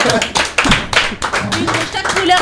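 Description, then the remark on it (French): A small group applauds, a dense patter of hand claps that carries on steadily for a couple of seconds, with some voices mixed in beneath the clapping. “Allez, on peut applaudir”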